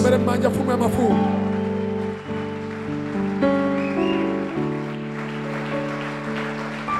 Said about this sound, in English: Clap your hands for the King of Kings.